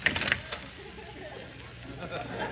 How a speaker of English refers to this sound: And I'll open this door and see for myself.